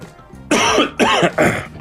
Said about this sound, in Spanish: Porque si veo Caragua no puedo hablar mientras vos toses, entonces que vaya.